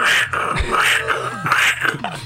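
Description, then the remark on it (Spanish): A person imitates with their voice the raspy, saw-like bark of a dog named Jack, producing a series of rough, grating bursts in a fairly loud, uneven rhythm. “Y el ladrido del perro era como un serrucho así.”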